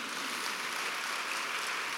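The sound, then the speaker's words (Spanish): An audience claps for the Lord at a morning church service in a steady, dense wash of hand claps, sustained evenly for the whole moment with no voices rising above it. “Dale un fuerte aplauso al Señor esta mañana.”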